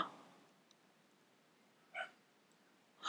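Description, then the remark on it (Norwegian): A dog gives a few short, sharp barks spaced apart by quiet pauses, heard alone against a faint, hushed background. “Så hørte du Toy Bergen, for han bjeffer jo nå”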